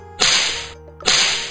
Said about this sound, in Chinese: 爸爸不停地甩动鞭子。